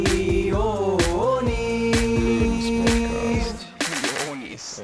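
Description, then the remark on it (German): Firecrackers pop and bang in quick, irregular, loud bursts over a warbling tonal background that drops away briefly near the end before a few more cracks. “Böller dies Jahr?”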